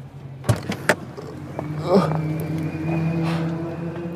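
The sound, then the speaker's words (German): A sports car engine, still warm after a driving session, is left idling with a steady low, even rumble, broken early on by two sharp clunks, with faint muffled voices in the background. “Man darf das Auto nicht ausmachen, weil äh, noch warm ist, aber sehr, sehr cool.”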